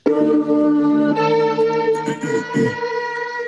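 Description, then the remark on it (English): A hip-hop song plays loudly, opening with sustained, droning synth-like tones that shift partway through, with a few choppier low notes before the sound thins out at the end. “First song. Here we go.”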